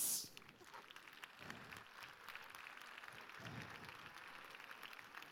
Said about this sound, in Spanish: Un aplauso